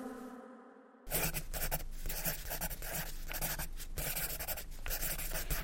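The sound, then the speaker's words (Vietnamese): A pencil, its tip wetted with saliva, scratches steadily across a notebook's back cover, writing one large line across the middle. It is fairly loud, with continuous rough strokes starting after a brief tonal lead-in and no voices present. “Tôi đi chợt nhớ ra chuyện gì, liền chạy vào phòng, xé bì cuốn tập rồi chấm nước bọt vào bút chì viết một dòng thật to ngay giữa tờ bìa sau.”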